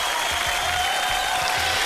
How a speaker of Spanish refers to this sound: Así que aplauso para ellos.